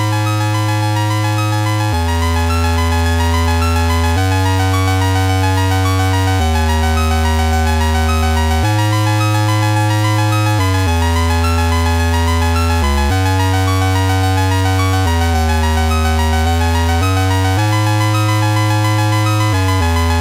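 Retro computer game music with buzzy synthesized tones over a bass line that steps to a new note every couple of seconds, playing steadily and loudly on its own without any voices.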